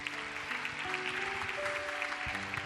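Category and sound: crowd, welcoming applause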